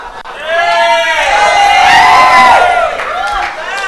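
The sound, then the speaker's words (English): A crowd shouts and cheers together in a loud, sustained burst of many overlapping voices, rising and swelling for a few seconds before easing slightly, then picking up again. “Why you guys shouting?”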